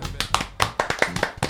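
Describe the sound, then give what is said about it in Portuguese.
A small group claps their hands in a short, brisk round of applause, the sharp claps fairly loud, landing in an uneven rhythm. “Saúde de palmas pra gente que Puta conseguiu que fazer 10 episódios.”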